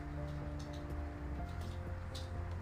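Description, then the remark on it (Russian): An electric fan runs steadily on a 31-degree day, a constant low motor hum with a soft airy whoosh over it, unchanging throughout and with no voices. “А то только вентилятор слышно, как работает.”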